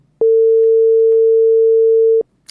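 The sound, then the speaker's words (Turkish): A single steady ringback tone on an outgoing phone call to a young guest of a program, a pure hum lasting about two seconds with abrupt start and stop, loud and clear with no talking. “Evet, çalıyor.”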